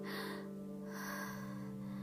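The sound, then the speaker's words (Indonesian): A voice acts out sharp, audible gasps of someone jolting awake and taking a big breath: two quick intakes of breath about a second apart, fairly loud over a steady low hum. “langsung hep bangun itu langsung yang namanya ambil nafas banyak”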